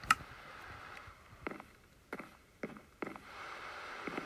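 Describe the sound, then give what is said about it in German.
Rain falling as a soft, steady hiss, with a handful of heavier drops tapping at irregular intervals; no one speaks. “Das ist jetzt blüht mit dem Regen, es wird dann richtig laut.”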